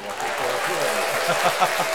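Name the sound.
applause sound effect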